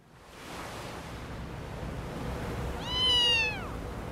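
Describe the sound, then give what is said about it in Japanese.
Ocean waves wash steadily in a continuous roar of surf, with a single high, descending cry briefly rising above the noise near the end. “波の音を聞くとなんか安らぎますね私ロボットだからよくわからないけど波の音って人間が生まれる前にお母さんのおなかの中で聞いていた音によく似てるって言うじゃないだからじゃないの”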